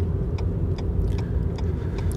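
A car drives along with a low, steady rumble that stays fairly quiet and smooth, the engine noise gently building as it accelerates, with faint ticks and creaks over the hum.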